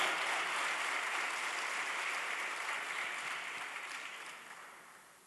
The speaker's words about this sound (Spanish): Alguien lo está entendiendo porque yo creo que si le damos un aplauso al Señor tiene que ser de honra y de alabanza